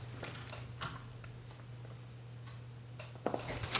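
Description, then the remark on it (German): Scattered keyboard clicks tap out at an uneven pace, a few quick keystrokes bunching together near the end, over a steady low electrical hum with no voices. “Ja, schreib mal schnell. Ja, man hört, man hört jedes Klacken, deswegen.”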